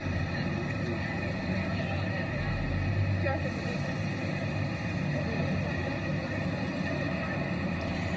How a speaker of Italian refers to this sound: Abbiamo aperto la finestra su New York. Siamo in mezzo praticamente al traffico pieno di taxi gialli, freni che stridono, persone che parlano, SUV che corrono e sfrecciano rombando ci sono anche i poliziotti ovviamente, non manca nulla,